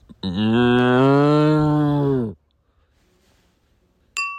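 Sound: person imitating pigeon cooing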